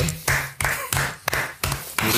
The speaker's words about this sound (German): Das ist ja mal Applaus wert, Alter.